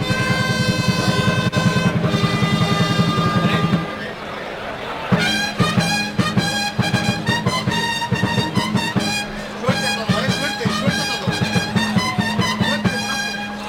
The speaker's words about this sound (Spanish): Clarines y timbales suenan en la Plaza de Toros de Úbeda. Clarines y timbales que son iguales, suenan igual que los de Madrid.